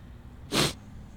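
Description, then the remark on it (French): A single short, sharp sniffle, a quick breathy nasal burst that rises and fades within a quarter second, against quiet background noise with no talking. “Désolé pour le reniflement.”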